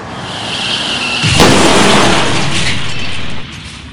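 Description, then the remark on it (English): A car crash on a winter highway: a car slides out of control and crashes into the car ahead at a red light, a thin high squeal giving way to a sudden, loud crunching impact, followed by a couple of seconds of roaring, rattling debris noise that cuts off abruptly. “There's a red light coming up ahead, and although you try to slow down, you begin to slide, losing complete control and forcefully crashing into them.”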